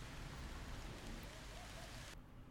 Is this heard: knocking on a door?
no